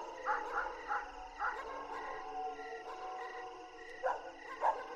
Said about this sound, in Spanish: Abrí los ojos y empecé a escuchar a los perros ladrar.